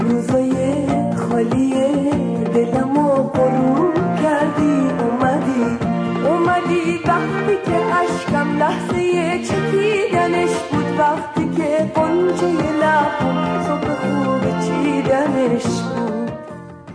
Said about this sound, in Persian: خب امیدوارم که این موسیقی به قولی این صدای عجیب ماندنی رو شسته باشه